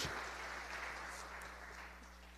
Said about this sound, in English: Let's give a nice clap for St. Joseph and for this church.